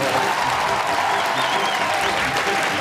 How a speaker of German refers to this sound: Danke! Sehr gut. Siehe da, die Leute klatschen. Mein Lied kommt also an, die Kraft meiner Lyrik zieht sie in meinen Bann.